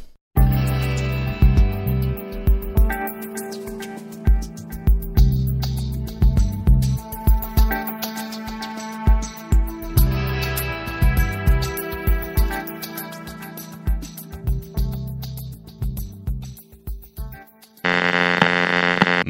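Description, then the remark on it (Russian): A short electronic jingle plays alone before a news segment, with a punchy, steady beat over buzzy synth chords and deep bass, ending on a brief sustained bright chord. “Такая отбивочка.”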